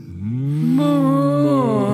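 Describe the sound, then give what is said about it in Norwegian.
A single cow on a farm moos loudly in the evening, a long drawn-out call that rises in pitch and holds steady for a couple of seconds with no talking. “Så da er det min tur til å sørge for at mjølka blir søt, og at kyrne blir fornøyde.”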